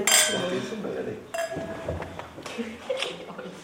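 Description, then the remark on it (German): Glasses of white wine clink and cutlery rattles against plates at a dinner of salad, sauerbraten with spätzle and vegetables, and fruit salad, with several bright chimes ringing out among a busy background of low voices. “Salat mit italienischem Dressing, Sauerbraten mit Spätzle und Gemüsebeilage, Obstsalat, dazu Weißwein. Zum Wohl. Zum Wohl.”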